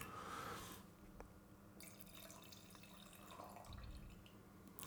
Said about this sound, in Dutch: Nee, vertel eens, ja, schenk ik nog een glaasje wijn in.